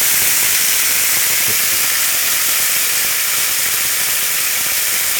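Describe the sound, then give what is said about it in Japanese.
Loud, steady sizzling of microwave-heated new potatoes as they are added to a hot pan with an extra tablespoon of olive oil, where mackerel has just been flipped. A dense crackling hiss fills the whole stretch without pause, with no talking. “で、ここに、先ほど電子レンジで加熱したじゃがいも、新じゃがですね。を入れていきます。”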